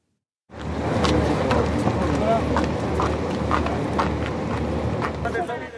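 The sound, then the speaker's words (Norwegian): A rescue ship's engine drones low and steady throughout at night in Sicily, while a press photographer's camera shutter clicks sharply several times at uneven intervals, crisp against the constant rumble. “Den eneste lyden som møter de her i den sicilianske natta, er lyden av redningsskipets motor og klikka fra en pressefotograf sitt kamera.”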